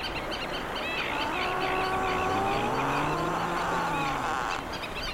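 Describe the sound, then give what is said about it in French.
Ice floes grind against one another below in the Skoresbisund fjord, giving off a steady chorus of eerie, gliding squeals and groans that rise and fall almost like synthesizer tones, with faint bird chirps above. “Les plaques de glace qui se frottent les unes aux autres en contrebas ont un son presque synthétique.”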